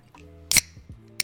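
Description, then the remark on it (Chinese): A can of Diet Coke snaps open with a sharp, bright crack and a short burst of fizzy hiss, followed a moment later by a second crisp metallic click over a low steady hum. “哦，开罐美丽。”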